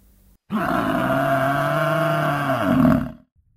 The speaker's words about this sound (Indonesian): Namun tiba-tiba ada suara Anoa di sekitar tenda sore itu.